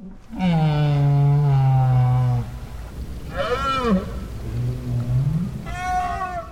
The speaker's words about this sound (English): Parks made another recording of right whales at the Bay of Fundy, where Maine meets Canada.